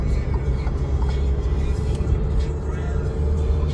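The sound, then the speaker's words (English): An Alfa Romeo car engine drones steadily while driving, a continuous low rumble heard from inside the vehicle, with faint voices murmuring beneath the road noise. “But um this car right here, this is an Alfa Romeo.”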